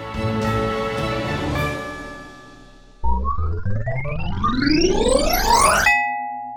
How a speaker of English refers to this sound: New mail notification.